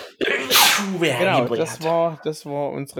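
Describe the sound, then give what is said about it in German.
A single sharp sneeze bursts out, loud and breathy, and is followed right away by a person talking. “Na, Gesundheit.”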